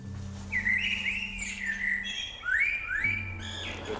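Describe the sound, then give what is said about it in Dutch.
A songbird chirps in the street in quick, bright twittering phrases, two main bursts a moment apart, clear over a low, steady outdoor hum. “Je maakt geluidsopnames van je reizen, van voetstappen in de gang, vogelgeluiden op straat.”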